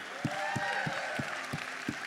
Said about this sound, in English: Isn't that great? Let's give him a hand.